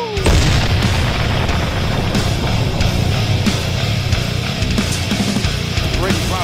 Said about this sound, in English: 5, 3, 2, 1. Touchdown Tampa Bay. Fire the cannon.